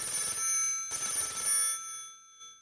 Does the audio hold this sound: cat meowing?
no